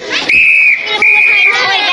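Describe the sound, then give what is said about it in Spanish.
Two loud, steady high-pitched whistle blasts, each lasting under half a second with a brief gap between, over a background of children's noisy chatter; the two whistles signal the children to put their toys back in place and return to the rug. “Cuando oigáis dos pitidos, cada uno volverá a poner el juguete en su sitio y volverá a la alfombra.”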